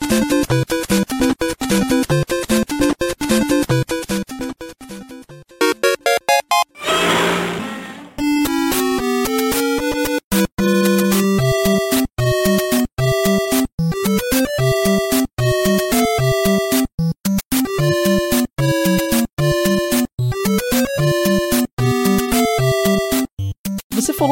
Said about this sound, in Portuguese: da música da fase da água, o pessoal que tá ouvindo esse podcast já ouviu várias. Ele tá todo trilhado com a, a, as, as, músicas clássicas do Mario.